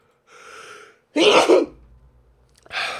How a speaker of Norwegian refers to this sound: Det kommer snart et nys.